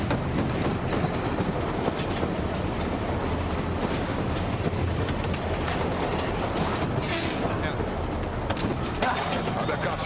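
A steady, loud rumble of a train rolling along its rails fills the whole stretch, with faint rattling and clatter from the cars running underneath without a break.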